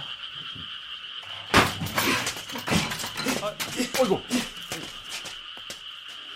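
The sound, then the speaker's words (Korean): A steady chorus of frogs croaks throughout, with a sudden loud clattering thump partway in and a man's brief exclamations and muttering over the chorus. “개구리가 왜 이렇게 울어?”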